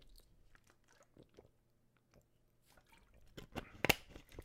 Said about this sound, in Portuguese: Deixa-me só beber aqui água.